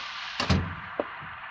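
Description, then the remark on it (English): A squeaky door swings shut with a quick scrape and a solid thud, followed a moment later by a single lighter tap, then quiet room tone. “You are getting a squeak. Close the door.”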